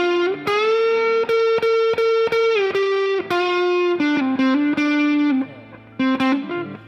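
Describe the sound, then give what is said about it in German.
Screeching, heavily distorted electric guitar notes held long and bright, edging toward feedback, with sharp percussive hits punctuating the sustained tones. No voices, just loud saturated guitar. “Oder auch hier so diese, die einzelnen Noten, die kreischen, oder also die, die gehen dann halt auch so ein bisschen ins Feedback schon fast rein.”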